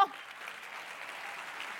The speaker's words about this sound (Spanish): Si ese es el aplauso,